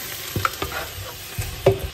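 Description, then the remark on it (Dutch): A steady hissing sizzle from a frying pan of sliced cucumber and tomatoes as a little water goes in, with a few soft knocks and scrapes of stirring scattered through it. No one speaks. “beetje water erbij.”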